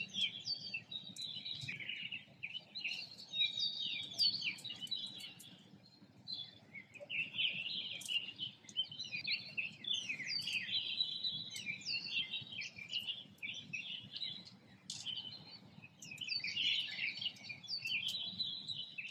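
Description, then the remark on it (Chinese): Birdsong recorded from a balcony in Shanghai at the start of the city's lockdown fills the whole stretch: many overlapping high-pitched chirps, trills and tweets from several birds, steady and lively throughout, over a faint low background hum with no voices. “此次，刘毅老师将和我们分享他于上海封控之初一时兴起在阳台上录制的鸟鸣声，是如何成长为一个大众一起参与与分享鸟鸣声的可持续的公共艺术项目——鸟鸣电台，”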